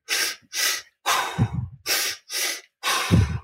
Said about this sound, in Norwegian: Og den hyperventileringa, hva, hva, vil det si? Altså, du, du framprovoserer? Jeg vil bare si at eh, ja, at du, at du, du puster eh, kjapt inn og ut da, eh, gjennom munnen, sånn.